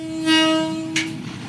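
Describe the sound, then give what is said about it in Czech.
An express train on the railway from Laos to China rumbles along the rails, a sustained horn-like tone sounding loudly over the steady rolling noise, with a short burst of hiss near the end. “je jedním z prvních Čechů, kteří se tímhle rychlíkem svezl.”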